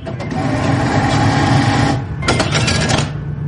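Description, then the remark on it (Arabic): An ATM whirs as it dispenses banknotes: a steady mechanical rattle and feed sound in two bursts, separated by a brief pause, with no voices. “في أصوات كلنا نحبها مثل جمهور فريقك بعد ما يجيب الجول بالدقيقة 90 أو صوت الفلوس وهي نازلة من الصرافة بعد ما نزل الراتب”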